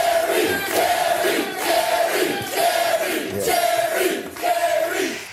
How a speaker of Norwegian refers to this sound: De ropte jo veldig mye sånn Jerry! Jerry! Så kan du bare bruke fem sekunder bare på å høre publikum som roper Jerry, og, okay.